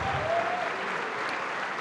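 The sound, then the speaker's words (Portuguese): A church audience applauds God, a dense, continuous wash of many hands clapping at an even loudness throughout, with a faint brief tone sounding early on. “Mas eu quero que você dê mais uma salva de palmas para aquele que te formou.”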